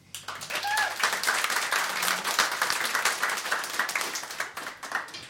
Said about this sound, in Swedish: Ja, då har vi en trubadur bredvid mig som ofta är med och spelar här i radion. Jag ger en stor applåd till